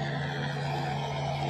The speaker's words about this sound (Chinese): 直升飞机飞过了。这地方直升飞机很多，因为边上呢有一个军用机场，还有民用的直升机呢，呃，是做游览观光用的，所以呢，天天天都是不断的有直升飞机飞来飞去的，可能会有点吵